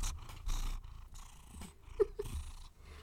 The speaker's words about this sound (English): Hello, sir. He's purring.